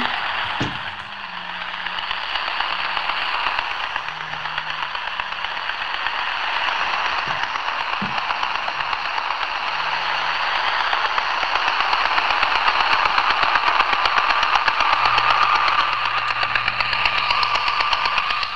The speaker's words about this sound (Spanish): Y no es otra cosa que el robot que barre el suelo, el puñetero rumba.